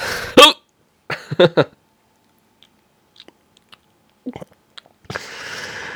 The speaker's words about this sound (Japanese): そう。だから、あのー、止まんねえよ、シャックリ。どうしよう。